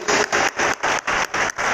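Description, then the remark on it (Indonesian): An audience applauds after the preacher asks them to give a hand and a prayer, with loud, steady clapping that swells in rhythmic bursts about four times a second, a dense wash of hand claps with no voices over it. “Boleh kita berikan tangan dan doa”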